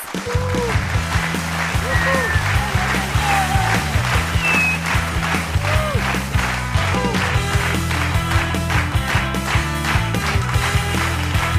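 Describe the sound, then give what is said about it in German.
A crowd claps steadily and densely for over ten seconds as a quizmaster is called onto a stage, a loud continuous patter with scattered whoops and voices rising through it, over a low, steady droning backing. “Komm gerne auf die Bühne. Applaus!”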